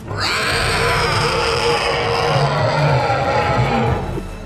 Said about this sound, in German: Aber die, die ihren Bogen ausreichend gespannt haben, treffen das Ziel. Die Kreatur kreischt und schreit.